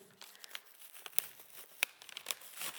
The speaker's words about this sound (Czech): Budou ty papíry prostě stejně vypadat tak, když je oddělíme? Budou to dva jednotlivé papíry? Bez poničení už nebudou nikdy. Když ty papíry vezmeme a budeme je chtít roztrhnout, čím více budeme snažit, tak každý ten papír bude prostě poničený.